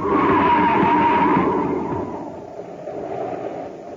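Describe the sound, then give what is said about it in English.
A car skids with a loud, sustained screech over a roaring rumble as it heads off the edge of a foggy highway and goes over a cliff, the noise gradually easing and fading away over a few seconds. No voices are heard. “Happy, look out. We're heading for the edge. Huh? We're going over the cliff.”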